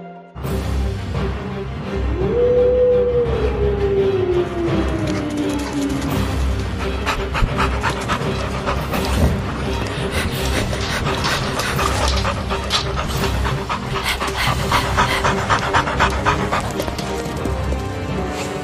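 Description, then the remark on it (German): A pack of wolves bursting from a thicket in a forest pants and snarls while giving chase with bared teeth, a loud, continuous flurry of harsh breaths and growls, with a rising whine near the start. “Denn wie erwartet schoss ein Rudel Wölfe aus dem Dickicht und verfolgte sie mit fletschenden Zähnen.”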